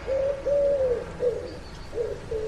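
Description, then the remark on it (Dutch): A pigeon coos in a short series of soft, low, rounded calls with brief pauses between them, clear over a faint background hum. “Hoort u die duif?”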